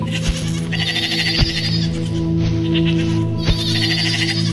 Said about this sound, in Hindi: तो नदी के उस पार से बकरियों की आवाजें उसे फिर सुनाई देने लगी बिरजू ने पलटकर पीछे की तरफ देखा तो सचमुच सभी भेड़ बकरियां नदी के उस पार खड़ी थी